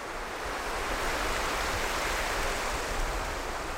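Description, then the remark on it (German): A steady wash of surf on the Red Sea shore at the town beach of Berbera, Somaliland, a continuous broad hiss of water with a soft low rumble and no distinct individual breakers, heard alone without any voices. “Wir sind jetzt mit Florian Guckelsberger am Stadtrand und am Hafen von Berbera.”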